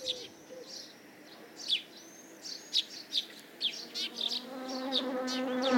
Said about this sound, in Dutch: Dat is onze hommel. Ah, dat is de hommel, hè? Die hommel passeert hier al, denk een week of twee uur dagelijks. Ja, en komt op alle bloemen eigenlijk om te bestuiven en ja, de bloemen trekken hem aan.